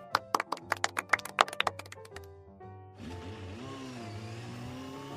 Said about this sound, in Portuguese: Hum, peraí. Só um minutinho que passou uma moto aqui, peraí. a, a moto tá fazendo zerinho na frente da casa